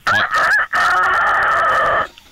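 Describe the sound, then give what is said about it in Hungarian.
A person's voice imitates a rooster crowing: one loud, drawn-out cock-a-doodle-doo with a brief break near the start, then a long sustained final note, heard alone. “jöhet a kakas”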